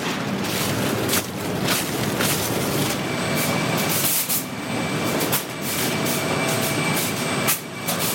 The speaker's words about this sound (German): Das ist ein Gebläse. Das schlechte Material, was wir nicht benötigen, wird jetzt ausgeblasen, fällt nach hinten durch. Und das gute Material fällt nach vorne rein und geht dann auf die Bänder zum Nachsortieren.